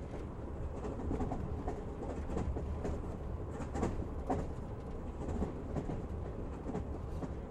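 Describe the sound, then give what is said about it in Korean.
An Amtrak train rolls steadily along the rails, a continuous low rumble with faint clickety-clack beats and occasional sharper rattles, without any talking. “기차 여행과 수면의 관계는 다른 대부분의 관계와 마찬가지로 복잡하다.”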